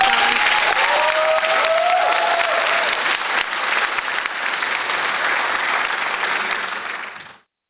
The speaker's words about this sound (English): Round of applause.